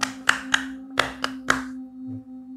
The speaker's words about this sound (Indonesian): terus gedor gedor buk buk buk buk buk buk bilik, bunyi bilik di gedor